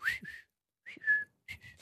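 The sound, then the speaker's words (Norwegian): A phone's text message notification tone, for an SMS from a friend, plays three short, bright, whistle-like chirps separated by brief pauses, fairly clear and high-pitched, with no talking over it. “Eh, jeg fikk SMS fra ei venninne.”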